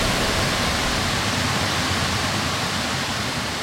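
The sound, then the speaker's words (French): Steady rushing water from two small waterfalls, formed where a river splits in two, blends into one continuous, full-bodied roar, unchanging throughout with no voices or other sounds. “Et alors, on entend en fait le chant de deux cascades différentes.”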